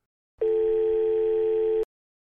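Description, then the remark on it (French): A single steady ringback tone on a phone line, the fourth ring, a clear mid-pitched electronic hum lasting about a second and a half before it cuts off abruptly with a small click as an answering machine picks up. “Quatrième sonnerie, coupée par le déclenchement du répondeur.”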